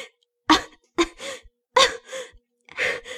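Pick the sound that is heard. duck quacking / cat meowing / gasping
gasping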